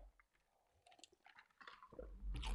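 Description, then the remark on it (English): Crunchy chewing of ice, a series of sharp cracks and grinding crunches that grow louder toward the end, heard alone without talking. “I'm sorry, I'm chewing ice. I probably shouldn't be chewing ice in your ear.”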